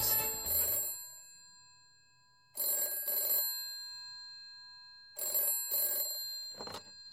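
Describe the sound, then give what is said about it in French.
A telephone rings in repeated double bursts, three paired rings spaced a couple of seconds apart with a brief final chirp, bright, with no voices; it is a producer calling back. “Le producteur finit par s'exécuter et rappelle immédiatement après son écoute.”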